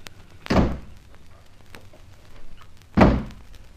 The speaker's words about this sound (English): Now, you shut the door on your side, Miss Dick Turpin, and I'll do ditto on mine.